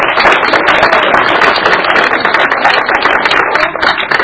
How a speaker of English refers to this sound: applause for our wonderful sixth graders from Mount Nittany Middle School.